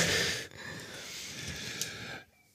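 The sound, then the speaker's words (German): Soft breathing with a faint nasal snuffle of a nearly two-week-old baby girl sleeping on a person's belly, snorting and sniffling in her sleep, steady for about two seconds before fading out. No one talks over it. “Also wie gesagt, wenn ihr was schnaufen hört, das ist das Kind vom Bauch.”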